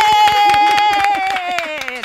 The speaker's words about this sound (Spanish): Así que, bueno, un aplauso para... ¡Nuestras madres! ¡Nuestras madres! ¡Bien!